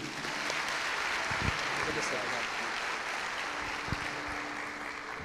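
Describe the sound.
A church audience applauds Jesus at an evening service with a dense, steady wash of clapping that holds evenly for about five seconds, with a few voices faintly mixed in beneath the applause.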